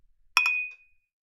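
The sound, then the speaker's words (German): Two quick, bright glass clinks in a toast, one right after the other, leaving a clear ringing tone that fades out over about half a second. “Prost. Prost.”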